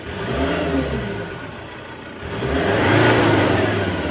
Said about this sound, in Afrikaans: Die 3.2 liter 5-silinder turbo diesel kom reguit uit die Ranger bakkie en is nogal uitdrigtig teen luier en stadspoed.